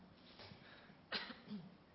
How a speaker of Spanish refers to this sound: ¿Iban a preguntar algo? No. Nada más era una tosecita.